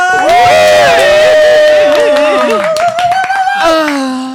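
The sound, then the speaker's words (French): Applause from a crowd after a presentation of Sexcraft, loud sustained cheering and whooping voices over scattered sharp claps that grow more noticeable midway before the shouting rises again and fades. “C'est des applaudissements, pas des bruits de branlette.”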